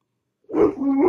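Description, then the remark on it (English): A dog lets out one drawn-out, throaty bark-like vocalization after a brief silence, fairly loud, with no one talking. “Uh, your dog says no.”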